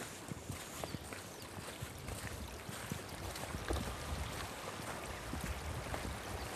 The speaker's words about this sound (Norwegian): Her kommer vi til en, eh, liten bro over en eh, elv her. Det er jo idyllisk og vakkert her, og litt sånn høstfarver er det jo også. Der, det var, der går det fisk til og med i, i elva her. Ja. Det her er jo da Gårdselva.